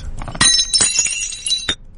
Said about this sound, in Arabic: هذا اكيد انت طبعا يعني اي احد عندك في البيت اذا كسره الله يعينه كذا بيجي تهزيه خصوصا اذا كان يعني من النوع المميز حق الضيوف ما يطلع لي في المناسبه كسر اي كسر كاسه او صحن